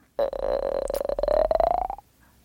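A loud, close cartoonish stomach-growl effect: one sustained gurgling rumble that bubbles and rises slightly in pitch for about two seconds before cutting off, with no voices.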